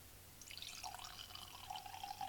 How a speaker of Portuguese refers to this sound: servir um bocadinho de vinho para fazer um brinde sozinho a gravar este episódio.